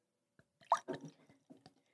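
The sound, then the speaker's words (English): Double Blizzard beer pours into a glass in a few short, irregular glugs and splashes, fairly quiet, lasting about two seconds with no one talking. “All right, let's get a pour here.”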